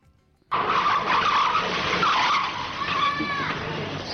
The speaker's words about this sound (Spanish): a un chico se le va la pelota a la calle, corre eh, detrás de la pelota y aparece a toda velocidad un, auto que frena de golpe.